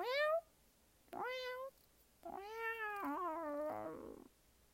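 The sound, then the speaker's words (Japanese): A person imitates a cat with three meows: two short rising mews, then a longer, wavering drawn-out meow, fairly loud with no other talking. “まあ小さい時から猫の鳴き真似はねしてたんだけどまあその頃から本格的に多分ね私もあの開眼したんでしょうね”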